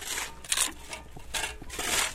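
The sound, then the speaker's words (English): Government contractors' shovels scrape and dump dirt into thick plastic bags in a few rough bursts, with crunching and rustling, moderately loud, with no talking; torn-up driveway of an abandoned house at a cleanup site less than a mile from the Fukushima nuclear plant, Japan. “Government contractors are shoveling dirt into thick plastic bags after tearing up the driveway to an abandoned house.”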